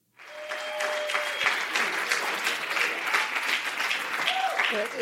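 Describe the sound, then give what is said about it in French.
An audience applauds steadily, a dense wash of many hands clapping at a constant level for several seconds, with a faint tonal hum early on and no break in the sound. “J'espère que vous applaudirez à la fin aussi, hein, parce euh.”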